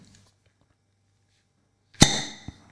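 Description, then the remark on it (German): A sealed jar lid pops open with a sharp crack and a brief hiss of air, followed by a small click, after near silence. “Ich nutze jetzt mal die Phase und mache erstmal ein Glas auf.”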